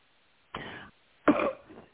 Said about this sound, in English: okay, hang on a second. I'll, I'm going to mute myself for one teeny second because I have to cough. Go for it. Go ahead. Get that cough out.